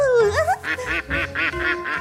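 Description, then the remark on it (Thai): A rising squeaky call leads into a quick, bouncy run of five bright duckling quacks, evenly spaced, with no talking over them: a duckling shouting out with joy. “ลูกเป็ดได้ตะโกนออกมาด้วยความดีใจ ลืมความเศร้าไปก่อนหน้านี้จนหมด”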